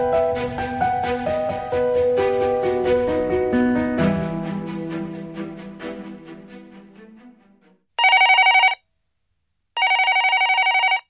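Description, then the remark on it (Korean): After several seconds of tonal, melodic music that fades out, a telephone rings loudly twice, each ring a sustained bright buzzing burst separated by a short silence. “며칠 후 다시 전화가 왔다.”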